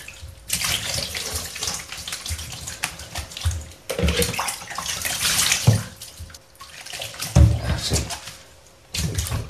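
Continuous water splashing and sloshing in a bath as a baby is bathed, with irregular bursts and a few sharper, louder splashes near the end; no one talks.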